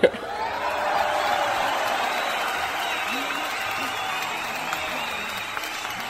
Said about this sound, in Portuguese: A palmas.